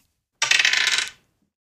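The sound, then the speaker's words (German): A small colorful six-sided game die is rolled and rattles and clatters briefly on a surface, a quick burst of bright clicking taps lasting under a second, landing on a three, with no talking. “Ähm, okay, ein Würfel. Geht bis sechs und er klingt auch ganz wunderbar.”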